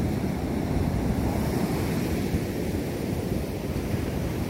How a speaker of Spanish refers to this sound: Bueno, pues aquí pueden observar ustedes que esta, esta es una pequeña barra. Afortunadamente no traía la corriente el río. Y es nada más el oleaje que está cruzando hacia la laguna.